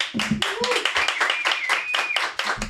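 A crowd claps in sustained applause welcoming a guest, dense and loud throughout, with a few whoops and cheers rising over the steady clapping.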